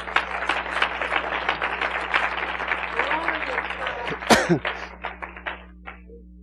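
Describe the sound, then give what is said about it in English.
An audience claps in praise of the Lord: dense, steady applause that holds for several seconds, then thins into scattered individual claps and fades out, with one sharp thump near the end. “Give the Lord a hand clap of praise, would you?”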